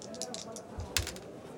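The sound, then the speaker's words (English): Percentile dice clatter across a hard surface, a scatter of quick clicks building to a sharper knock before settling, with a faint murmur in the background. “I'm going to roll percentile dice here.”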